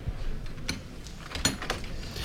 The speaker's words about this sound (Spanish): Porque se ha riado el paso en el interior, pero yo creo que la puerta se va a cerrar aquí. Y no eh, vamos a poder. De forma inminente. De hecho, eh, es lo que están escuchando nuestros oyentes.